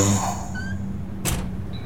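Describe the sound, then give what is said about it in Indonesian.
A single short thunk of a car door closing as the driver gets out of a car pulled over at the roadside, cutting through a low, steady engine-like hum, followed by faint tonal whines. “Aku turun dari mobil”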